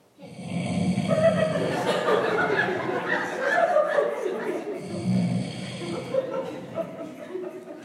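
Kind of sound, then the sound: vocal imitation, imitated snoring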